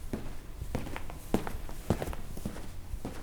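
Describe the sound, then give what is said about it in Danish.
Footsteps of a colleague walking steadily down a hallway, a series of distinct thuds at an even pace with a faint background hum and no talking. “Der var et tidspunkt, hvor en af mine kollegaer kom gående ned af, af gangen, hvor de kunne høre nogle fodtrin, der kom gående, mens jeg var i gang med at klippe den her bog i stykker.”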